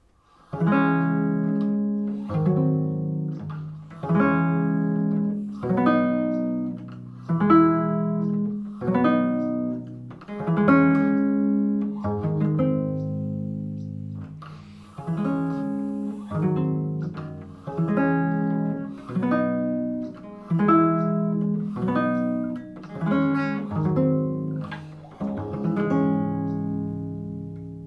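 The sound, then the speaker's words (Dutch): An instrumental passage of sustained, harmonically rich chords changing in a steady, stately rhythm, the eight-bar progression played twice with no voices, ending on a held final chord. “La Folia werd en is nog steeds populair dankzij de overzichtelijke structuur van acht maten met akkoorden.”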